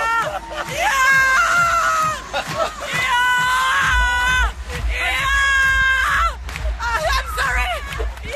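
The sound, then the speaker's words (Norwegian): A female radio commentator screams and shrieks excitedly in long, high, wavering bursts as Norway wins a semifinal, over a loud, dense crowd noise, with cheering and babble filling the background throughout. “ikke den vanlige koselige radiostemmen. Den litt skrikete, heseblesende”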